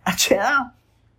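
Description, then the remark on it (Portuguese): A voice imitates a sneeze: one short burst of breathy hiss followed by a brief voiced, sliding tail, then silence. “Tem gente que espirra assim, né?”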